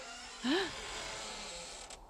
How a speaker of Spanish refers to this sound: ¿No le habéis echado tres en uno a la puerta del estudio?